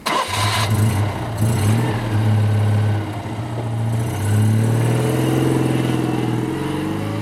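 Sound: car engine starting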